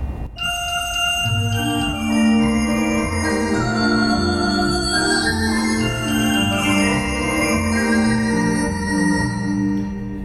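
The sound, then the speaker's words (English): Tuned sleigh bells play a bright, ringing melody for about ten seconds, the jingling tones shimmering and overlapping as the notes change. Steady and fairly loud, with no voices. “we have the uh, tune sleigh bells. So, uh, you know, I can do something like a.”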